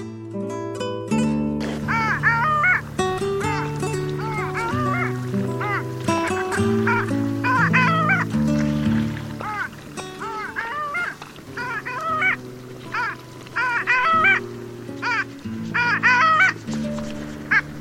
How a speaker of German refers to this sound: Das war die Eisente.